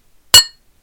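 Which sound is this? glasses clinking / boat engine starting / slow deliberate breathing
glasses clinking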